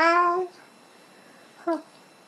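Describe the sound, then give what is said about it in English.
A baby boy coos in a long, sing-song, somewhat musical vocalization, as if trying to sing along with an adult, then falls quiet before giving a second brief, higher coo. Both sounds are clear against a quiet background. “And he kept just like making noises to me.”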